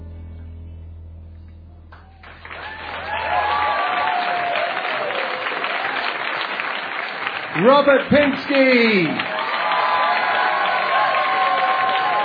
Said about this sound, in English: That's the biggest cheer a poet ever got on this show, I think.